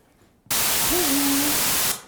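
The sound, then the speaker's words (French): A loud, steady burst of white noise hiss lasts about a second and a half, with the faint spoken word "bonjour" barely audible beneath it, then cuts off abruptly. “Maintenant, rajoutons un bruit par-dessus comme un, bruit blanc.”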